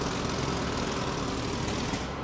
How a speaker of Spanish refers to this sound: Abro la puerta de la terraza y siguen las obras, siguen las obras en la calle. Están en este momento martillando justo en la intersección de la calle, martillando con, con un, eh, ¿cómo se llama? Es un taladro hidroneumático